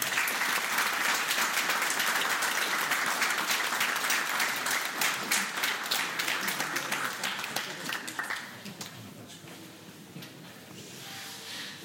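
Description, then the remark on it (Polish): Sustained audience applause as Polish MP Dobromir Sośnierz is introduced: dense, steady clapping from many hands that holds for several seconds, then thins out into scattered claps and fades toward the end. “Przed Państwem poseł Dobromir Sośnierz. Wielkie brawa.”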